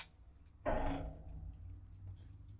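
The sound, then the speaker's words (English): A single clanging strike as children hit a metal railing right outside a window, ringing out briefly and fading, muffled as if heard from indoors, over a low steady background hum. “Yeah, just now they're just hitting the railing.”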